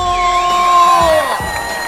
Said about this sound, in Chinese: 掌声有请主持人李波。